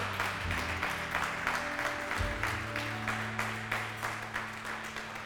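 A church audience breaks into sustained applause at the preacher's call to clap loudly, many hands clapping in a dense, steady wash with faint rhythmic peaks, lasting several seconds over a low background hum.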